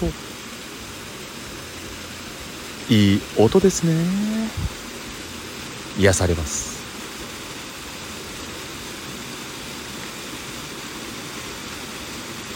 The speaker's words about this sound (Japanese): 皆さん聞こえますか滝の音